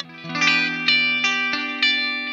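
A 1964 Epiphone Casino electric guitar with P90 pickups, being tuned a little, strums sustained, slightly overdriven chords, with fresh attacks roughly every half second or so, ringing out rich and bright with no voices.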